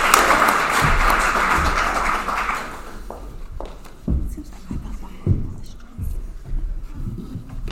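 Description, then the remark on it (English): An audience claps in a dense, loud burst for about three seconds, then the applause thins out to a few scattered claps and soft thumps. “Can we have clapping music so they can go back to their seat?”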